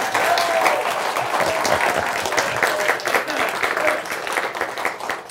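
A crowd applauds steadily, many hands clapping in a dense, continuous wash of sound that stays fairly loud and even for the whole stretch, with no voices standing out.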